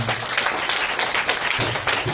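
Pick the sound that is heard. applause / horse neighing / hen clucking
applause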